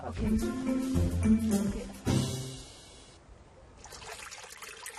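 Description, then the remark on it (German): Water trickles and splashes in an uneven, bubbling flow at a sacred spring where people cleanse themselves, loudest in the first two seconds, then fading to a softer, steady dribble with a faint hiss. “An dieser heiligen Quelle müssen wir uns reinigen, bevor wir den Palast besuchen.”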